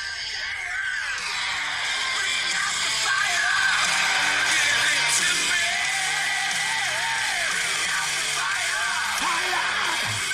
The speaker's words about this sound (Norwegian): som synger at nå er han lei av dikkedarier. Han er ikke så jævla redd for å slåss, hvis folk tror det.